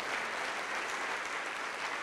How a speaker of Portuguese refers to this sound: Isso, vamos aplaudir. Vem, filha pródiga. Vem, filho pródigo. Vamos aplaudir, igreja, e vamos comemorar, porque este meu filho estava morto e reviveu, tinha se perdido e foi achado.